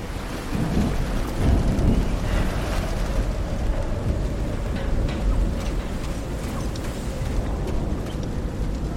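A thunderstorm with steady, heavy rain and deep rolling thunder rumbling continuously throughout, loud, with no voices present.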